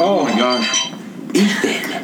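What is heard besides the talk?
alarm going off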